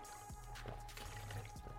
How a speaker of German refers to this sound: Entschuldigung, kurz was getrunken.